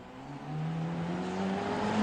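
A Formula Renault race car engine screams past during the 2020 Formula Renault Eurocup race at Monza, its high-revving whine climbing steadily in pitch as it accelerates, loud, with no voices over it.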